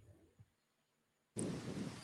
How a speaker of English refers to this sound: Oh, the rain's starting to come. Hold on, hold on.